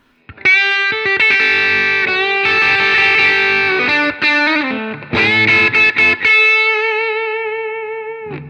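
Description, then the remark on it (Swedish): Electric guitar notes on a treble string through a distorted, effected tone: a run of picked and bent notes, then one bright note held and slowly fading. No one speaks. “Tjong i bassträngen, men på diskantsträngen låter det lite grann så här.”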